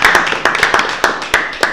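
Applause from a small group for a guest on a programme, with loud, uneven hand claps overlapping in a rapid, irregular patter that stays steady throughout, with no voices.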